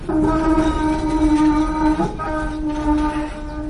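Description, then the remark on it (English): A tram rolls past through a street market in Hong Kong, its loud steady rumble overlaid with a sustained humming whine that shifts slightly midway, with busy street noise underneath and no one talking. “I really love this market because I think this is the only market in Hong Kong that a tram can go through.”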